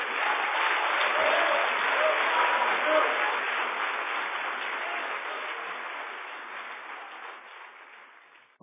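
An audience applauds loudly at the close of a sermon, a dense, steady wash of many hands clapping together that holds for several seconds, then gradually thins and fades out toward the end.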